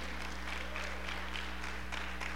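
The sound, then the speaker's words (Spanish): An audience applauds steadily for a couple of seconds, a dense, continuous patter of many hands clapping at moderate volume over a faint low electrical hum. “Un aplauso para todos porque lo hicieron maravillosamente.”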